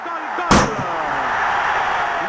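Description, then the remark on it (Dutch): A single loud gunshot cracks out at the start, followed by a faint echo, over a steady background hiss and rumble that continues after the blast fades. A man fires his gun at a person's back. “Een man trekt zijn geweer en schiet Escobar zes keer in de rug.”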